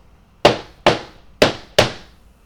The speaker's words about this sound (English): He's really enjoying hitting things with a mallet now. He's gonna put cracks in this. The, he's hitting it so hard.